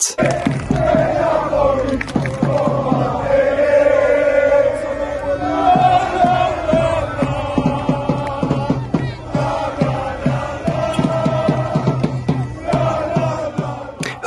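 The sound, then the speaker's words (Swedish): Hundreds of football fans at the airport in Naples late at night chant and sing together loudly to welcome the Napoli team after an away win against Juventus, voices blending into a rhythmic, echoing roar with sharp claps and shouts throughout, sustained and energetic. “Hundratals fans hade samlats för att ta emot Napoli efter ännu en tung seger, den här gången borta mot Juventus och laget är nu ännu ett steg närmare den hägrande scudetton.”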